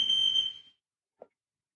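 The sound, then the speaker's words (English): A loud, piercing smoke alarm tone sounds steadily during a routine test, then cuts off abruptly, leaving near silence broken by one brief faint click. “Do you hear the smoke alarm going off?”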